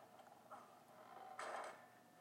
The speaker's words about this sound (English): Like, this is a camp and you're fucking around with some weird fucking basement door? Come on. Do you do you even know what that door is?